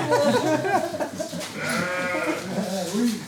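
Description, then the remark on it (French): A flock of ewes bleat over one another as they enter a milking parlour, in a continuous, overlapping chorus, several animals calling at once, with wavering, nasal cries rising and falling throughout. “Bon, là, on est dans la salle de traite. Alors, à votre avis, euh, on trait les brebis combien de fois par jour Ouais, ben une et deux en fait.”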